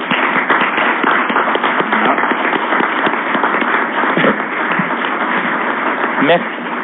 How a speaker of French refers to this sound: Je pense qu'elle mérite encore une fois vos applaudissements sincères.